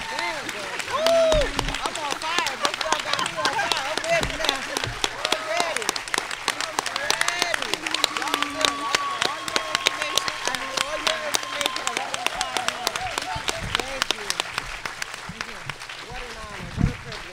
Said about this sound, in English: Can we give another round of applause to these amazing, amazing panelists?